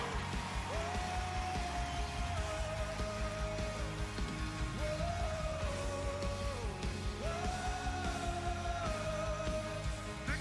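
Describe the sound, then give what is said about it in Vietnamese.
An audience shouts praise to God together, a steady loud roar of many voices with long, raised cries swelling above it in waves, continuing without pause throughout. “Nhưng nếu tôi biết rằng Ngài là Đức Chúa Trời vĩ đại, Ngài vĩ đại, Ngài là Đức Chúa Trời vĩ đại, hãy để Ngài nghe dân sự Ngài trỗi tiếng ca ngợi Ngài.”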